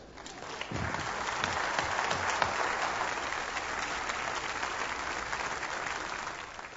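Steady audience applause welcoming speaker Dr. Ed Stetzer, a dense wash of many hands clapping that holds at an even, moderately loud level for several seconds, with a few low thumps near the start and no talking over it.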